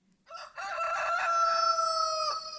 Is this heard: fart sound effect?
no